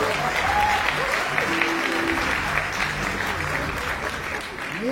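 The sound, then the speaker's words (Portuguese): Sustained audience applause for Ju Barbosa, a veterinarian, at a live show, a dense steady wash of many hands clapping at fairly even loudness for about five seconds, with faint cheers and voices mixed into the crowd. “salve de palmas para Ju Barbosa, senhoras e senhores.”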